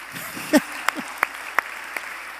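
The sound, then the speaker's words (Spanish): An audience gives itself a round of applause, a steady wash of scattered clapping with a few sharp, louder claps standing out at roughly regular intervals. A brief murmur of voices sits underneath. “Dense un aplauso, por favor.”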